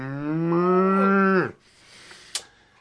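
A cow gives one long, loud, close moo lasting about a second and a half, ending with a falling pitch, followed by near silence and a single sharp click.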